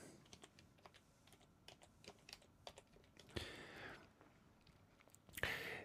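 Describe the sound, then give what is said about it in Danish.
Fingers tap quickly and unevenly on a computer keyboard, typing the Danish word "misundelse" (envy), with a couple of louder clacks like the space bar or enter key near the end. No one speaks. “Det kunne selvfølgelig godt være, at jeg skulle lige skrive det her.”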